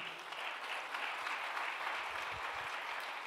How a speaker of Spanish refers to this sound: Dile un aplauso fuerte.